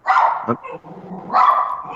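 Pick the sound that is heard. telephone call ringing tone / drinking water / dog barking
dog barking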